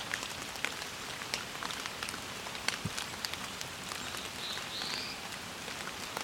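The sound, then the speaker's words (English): A black-throated blue warbler, probably a migrant, gives a short, buzzy, rising beer, beer, bees song of a few notes, beneath steady rain pattering on surfaces. “is the beer, beer, bees call of the black-throated blue, probably a migrant in this case.”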